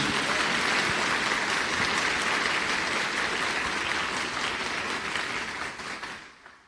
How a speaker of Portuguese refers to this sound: A pedra angular da Igreja Católica é Jesus Cristo. Pode aplaudir sua igreja, pode aplaudir sua igreja.